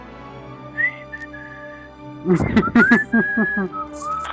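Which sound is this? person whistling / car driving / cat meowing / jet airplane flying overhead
person whistling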